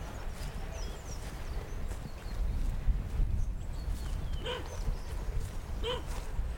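A dog barks twice in the countryside, a few seconds apart, over steady outdoor rumble and wind-like noise.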